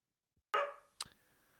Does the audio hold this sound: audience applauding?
no